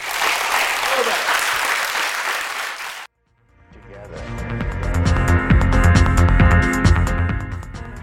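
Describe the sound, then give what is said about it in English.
A large audience claps steadily for about three seconds to thank three participants at the end of a debate, a dense, even wash of applause that cuts off abruptly; after a brief silence, music fades in and plays on. “But uh, can I just ask you simply very much to thank our, our, our three participants for a fascinating and as yet unresolved debate.”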